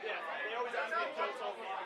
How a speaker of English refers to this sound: I can kind of faintly hear you guys. I'm glad you got a big, loud oh, crowd.